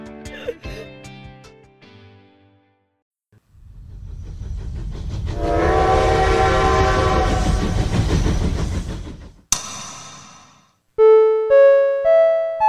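A train rumbles loudly for several seconds while a sustained, tonal horn blares over it, framed by short melodic musical notes before and after; music of the Infinity Train from the Demon Slayer (Kimetsu no Yaiba) film.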